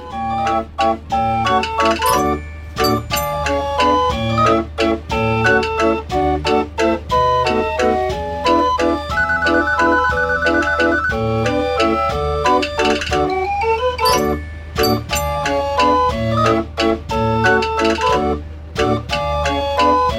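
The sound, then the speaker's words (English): A self-built 65-key fair organ named Pedroza plays a lively, loud tune for the full stretch, with bright pipe melody over steady bass and a thumping rhythmic beat, no voices. “we'll leave you with a little bit of uh, music here from Pedroza, which is Peter's self built organ, 65 key.”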